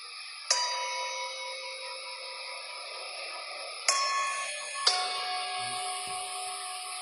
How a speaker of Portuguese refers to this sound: solta o corpo, segue o sino. Relaxa o corpo, segue o sino.